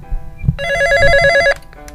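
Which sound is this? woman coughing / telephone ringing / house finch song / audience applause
telephone ringing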